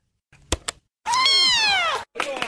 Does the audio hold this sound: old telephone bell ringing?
no